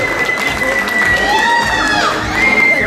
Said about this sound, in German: Ja, und da gibt es jetzt hier die Ehrung von der Jury. Boah, молодцы! So muss das sein hier. Ganz viele Schreie.